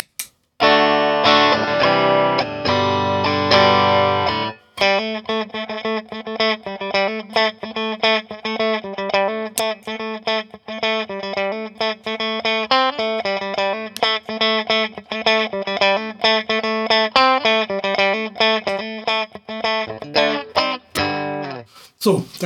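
A clean electric guitar plays a steady run of picked notes, with the compressor pedal switched on and off now and then, subtly changing the evenness and sustain of the tone. No one speaks.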